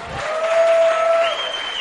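Steady audience applause, a dense wash of many hands clapping at an even, fairly loud level for a couple of seconds, with a faint sustained tone running underneath.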